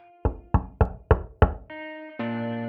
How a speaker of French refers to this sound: Au matin du 4 octobre, L'équipe l'attend en studio, elle est en retard. Son manager de l'époque, John Cook, inquiet de ne pas la voir, vient frapper à sa chambre d'hôtel.